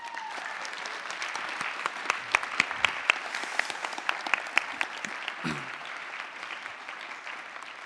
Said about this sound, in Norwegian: Så da må dere klappe godt for og heie dem fram.